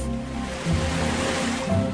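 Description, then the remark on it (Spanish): Ocean waves wash onto the shore in a steady, broad roar, swelling twice as they break, with a low rumble underneath and no voices. “Nací a la orilla del mar. Mi primera idea del movimiento y de la danza me ha venido del ritmo de las olas.”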